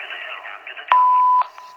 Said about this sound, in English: Please leave a message after the tone.